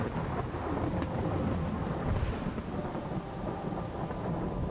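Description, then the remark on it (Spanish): A heavy storm roars steadily, with dense rain and gusting wind filling the air and low rumbles of thunder underneath, loud throughout with no voices. “La ventana se abrió y un fuerte viento aventó la cobija de Alejandro hasta el otro lado de la sala.”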